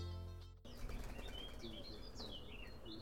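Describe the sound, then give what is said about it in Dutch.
A dove takes off from a raised drinking and bathing bowl set out for birds, with a sudden burst of flapping wings and a quick whirring flutter, followed by outdoor ambience with faint bird chirps in the background. “Daar vliegt het eh, duifje weg van de drinkbak en de badderbak die ik voor de vogels eh, heb neergezet op, eh, op een hoogte waar de katten moeilijk bij kunnen.”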